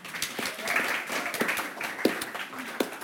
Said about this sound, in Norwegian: Og da førsteamanuensis Espen Grønli, som representerer hodet. En applaus til Espen òg.